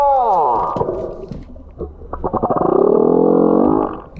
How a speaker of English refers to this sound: Sounds like my stomach wouldn't have anything to eat. And it's a humpback uh, whale that's yeah. singing a song of love. That's a seduction tune.